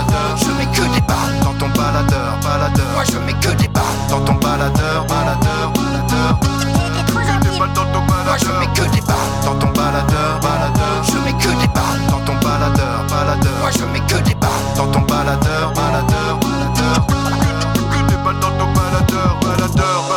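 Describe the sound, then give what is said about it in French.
A full, loud stretch of music plays steadily for about twenty seconds, with a driving beat, bass line and dense instrumentation, and no one talking over it. “Alors voilà, après euh, cette petite pause musicale”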